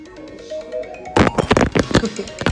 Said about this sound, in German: Ich dachte, du. ich dachte, mein Handy klingelt, aber ja. diese Klingel habe ich gar nicht.